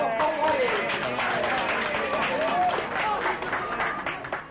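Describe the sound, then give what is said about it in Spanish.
A crowd applauding and cheering steadily, a dense wash of clapping with voices mixed in throughout, holding loud for several seconds before thinning slightly at the end, as a neighbourhood Christian community arrives at a Pentecost celebration. “Un aplauso para la comunidad”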